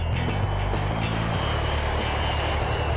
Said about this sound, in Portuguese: vamos pegar o nosso avião mais uma vez, já vamos de viagem